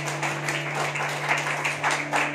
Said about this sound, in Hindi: ताली बजा के प्रभु को धन्यवाद करें